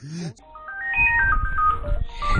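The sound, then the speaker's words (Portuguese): A melodic electronic phone or intercom ringtone plays a quick stepping tune of bright tones, fairly loud, announcing that a pizza delivery has arrived, with a brief voice at the start and some low background noise beneath. “É, acontece, a nossa pizza chegou.”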